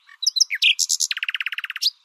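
A nightingale sings a short phrase: a few varied chirps and whistles, then a rapid run of about a dozen repeated notes, clear and loud with no voices.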